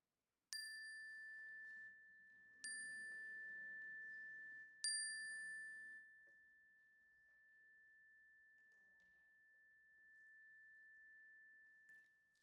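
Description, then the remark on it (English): A chime is struck three times at steady intervals during a communal prayer as names are spoken aloud, each bright metallic tone ringing with harmonics and then sustaining into a long, slowly fading hum amid otherwise quiet. “And I invite you to speak them aloud as the chime rings so that we can hold them with you together.”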